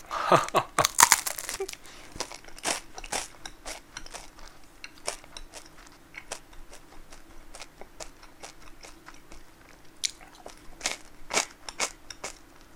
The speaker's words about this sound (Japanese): めっちゃいい音する けど今ねこれはマイクはねステレオのマイクですけどあの iPhone に変換コネクタを通してつないでるからモノラルでしか取れないんだよねこれステレオでステレオで咀嚼音取ったら ASMR だけど